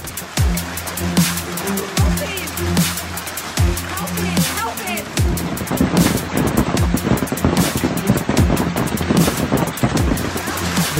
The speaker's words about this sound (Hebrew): העשן עוד מתעמר מעל העיירה, אבל פתאום יש גשם. הוא נמשך רק כמה שניות, אבל יורה שטף מטורף. בזמן שהאש משתוללת פה, בגבעה הסמוכה בקוויביאן, התחיל לרדת גשם שוטף. מזג האוויר פה השתגע לגמרי.